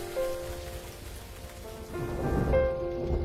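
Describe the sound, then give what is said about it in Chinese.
Steady rain falls in a continuous, even patter that swells somewhat louder in the second half, with a faint sustained tone humming underneath. “你走的第一个夏天，雨水疯涨。”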